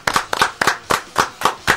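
A short round of applause honoring someone who has recovered: about seven crisp, evenly spaced hand claps in a steady rhythm, bright and moderately loud, with no voices.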